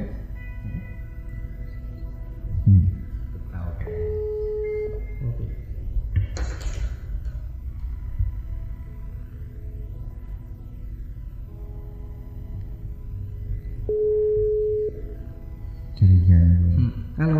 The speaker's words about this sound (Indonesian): Mantap, kita ada telepon nih Bapak. Ya.